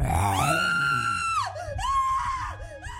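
A girl, Little Red Riding Hood, screams as the wolf pounces on her: a long, high-pitched cry that rises, holds steady, then breaks into shorter wavering shrieks, loud throughout with no words spoken.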